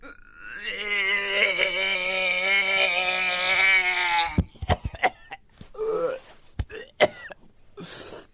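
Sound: repeated coughing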